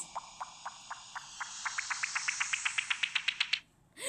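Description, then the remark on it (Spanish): A short transition jingle leading into an events section: bright, chirp-like pulses that repeat and steadily speed up over a hissy wash, then cut off abruptly. No one speaks. “Tenemos una cortina. ¿Qué quiere decir? Que vamos a pasar a la sección de eventos.”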